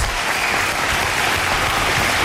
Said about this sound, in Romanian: România a mai înregistrat un succes și vreau să vă rog frumos niște aplauze pentru România. România!